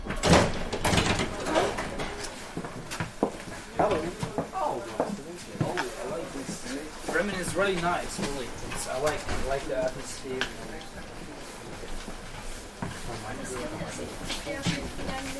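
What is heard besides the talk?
tram ride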